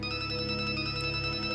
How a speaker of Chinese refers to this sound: 手机响了，他盯着屏幕，是一个陌生号码。